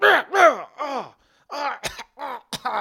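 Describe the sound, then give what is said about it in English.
A voice acts out a bout of coughing and choking: a series of strained, rasping bursts with a couple of sharp, harsh hacks near the end, fairly loud. “and you hear it coughing.”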